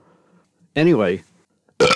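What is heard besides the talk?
burp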